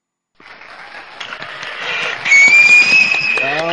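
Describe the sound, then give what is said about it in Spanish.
A burst of clapping for the panelists starts suddenly and builds into sustained applause, joined partway through by a sharp, high whistle that rings over the clapping until the end. “Así que vamos a las preguntas, pero antes, mientras vamos a las preguntas, un aplauso para todos los panelistas, chicos, por favor, aplaudidse entre vosotros.”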